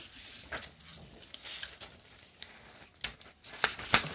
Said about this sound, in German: Dafür nehme ich aber jetzt lieber den Folienstift, weil ich glaube, das funktioniert ein bisschen besser mit Folienstift. Folienstift suchen. So. Also, jetzt schreibe ich noch auf den Luftballon.